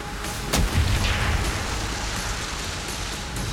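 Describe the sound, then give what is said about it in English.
A single heavy warning shot from a U-boat's deck gun cracks out, then a deep rumbling boom rolls away beneath a steady hiss of background noise. No voices are heard. “Even so, he kept firing warning shots, but I still needed him a little closer.”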